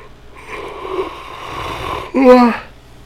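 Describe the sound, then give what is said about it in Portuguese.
A person yawns loudly: a long, breathy inhale stretches for nearly two seconds, then breaks into a brief voiced, groaning tail before trailing off. “Velho, eu vou bocejar de novo, não!”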